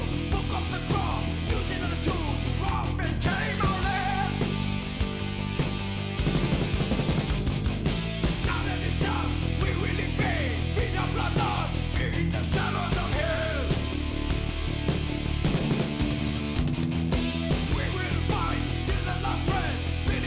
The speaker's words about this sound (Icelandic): Í dag ætlum hún að fara örlítið norðar í álfunni og við ætlum að heyra um döðametall frá Botswana.